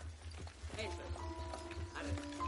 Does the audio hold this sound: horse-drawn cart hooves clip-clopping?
yes